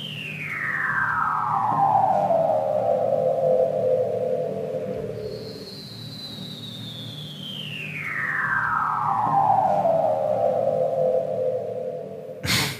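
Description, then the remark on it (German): Two long underwater seal calls, each a slow descending whistle that glides from high to low like a sci-fi laser, over a steady low rumble, with a brief click at the end. “Und so klingen sie, die Robben.”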